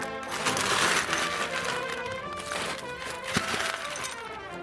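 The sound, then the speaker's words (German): A whole scoop of hard candies pours into a bag at a candy stand at the Wiesn fair on the Theresienwiese, with a dense, continuous rattling clatter of many small hard pieces, fairly loud, lasting several seconds. “So klingt es, wenn eine ganze Schaufel Bonbons in einer Tüte landet.”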